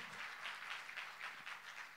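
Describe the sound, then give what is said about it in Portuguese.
A church audience applauds for Jesus, a dense, steady wash of clapping from many hands, sustained at an even level with no one speaking over it. “Dê uma salva de palmas para o nosso intercessor sempre presente.”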